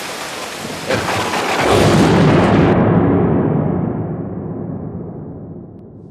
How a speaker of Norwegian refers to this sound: Det er full storm, her.